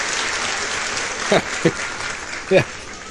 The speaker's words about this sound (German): Ich hole uns mhm. mal wieder rein mit einem Applaus, oder?